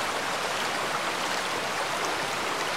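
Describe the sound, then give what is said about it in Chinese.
A waterfall rushes in a steady, unbroken roar of churning water, a dense hiss that stays even and fairly loud from start to finish with no voices. “二、三、四，开始慢慢走向瀑布的下方。”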